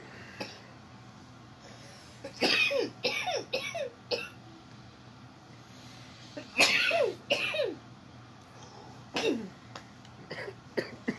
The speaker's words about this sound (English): Again, guys, if between here and the time we finished the show today, you hear us choking and laughing and giggling and all that, us because it's some good wedding cake.